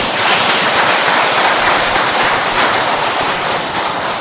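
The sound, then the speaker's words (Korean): A crowd claps their hands in steady, dense applause lasting about four seconds to congratulate someone, loud and continuous with a crackling texture, and no voices over it. “이, 이 손뼉 쳐준 것이 오늘 그, 그렇게 된 양반을 축하해준 박수연이 예.”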